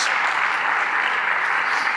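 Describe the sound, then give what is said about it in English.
A church audience claps together in praise of God, a sustained, dense burst of applause, many hands blending into a steady crackling wash that holds level for the full two seconds, with no voices standing out. “If you believe that, clap those hands one more time and give God a mighty hand of praise.”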